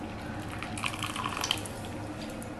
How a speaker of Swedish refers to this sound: Äh, jag häller på. Över kräftorna och persiljan här. Det känns som att det är lite mer vätska än innehåll, men...